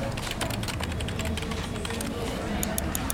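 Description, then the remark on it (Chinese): Rapid, irregular clicking of fingers typing on a computer keyboard, the crisp taps running steadily throughout over a low background hum with faint murmuring voices. “怎么了？让键盘烫着手了？”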